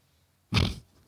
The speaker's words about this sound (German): habe gerade gegähnt.